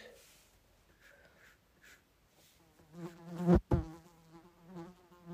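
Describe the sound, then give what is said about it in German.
A housefly buzzes, its droning hum rising and falling in pitch as it circles, swelling loud for a moment before fading again. “hört man die Fliege?”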